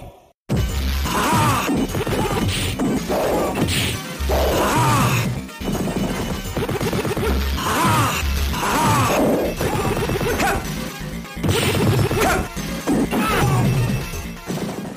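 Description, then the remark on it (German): Retro Amiga fighting game sounds: repeated punchy smacks and crashes in quick succession, with grunting voice samples layered over dense, loud, lo-fi game audio. “Auch zu erwähnen wären aus meiner Sicht noch die doch ganz guten Soundeffekte, die vor allem auch typisch Amiga natürlich durch so Voice Samples getragen werden.”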